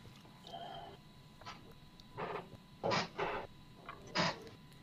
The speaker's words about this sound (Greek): Ακούω καρέκλε να τρίζουνε. Λόγια δεν ακούω.